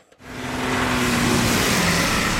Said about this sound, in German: Es ist einfach laut, es stinkt, es vibriert, man kann kein Fenster aufmachen. Schön ist anders. Wir hören die Geräusche teilweise um 2 Uhr, 3 Uhr nachts noch, wie die LKWs durchrasen.